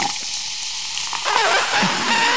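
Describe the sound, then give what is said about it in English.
Vinegar pours onto baking soda and erupts into a loud, steady fizzing hiss with crackling bubbles, jumping up in intensity partway through and continuing without any talking. “you've hooked Hector behind you up with uh, baking soda and vinegar, like those old science experiments”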